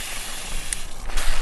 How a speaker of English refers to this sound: so I'm just going to change the setting on this hose pipe because I rather think oh hello it's a little noisy is that better oh